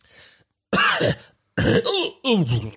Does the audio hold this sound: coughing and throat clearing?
yes